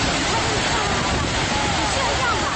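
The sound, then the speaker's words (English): Aortic aneurysm bruit heard through a stethoscope placed over a patient's belly: a steady, fairly loud rushing whoosh like water pouring, continuous for a few seconds with a faint pulsing texture and no talking. “I, basically I was listening to a bruit of an aortic aneurysm and called the vascular surgeon.”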